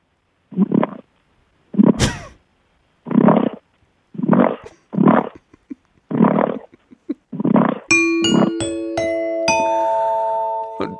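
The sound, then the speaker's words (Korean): A person imitates a hungry pig using their throat, with a series of about nine throaty grunts in a steady rhythm, fairly loud, joined near the end by bright sustained electronic tones and chimes. “돼지가 이제 끙끙대는 소리죠, 그냥.”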